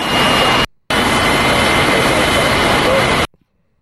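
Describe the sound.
A loud, steady jet engine roar fills the air on the airport tarmac in Syracuse, New York, after Biden touched down, with indistinct voices of men talking buried beneath it; the roar briefly cuts out near the start, then stops abruptly.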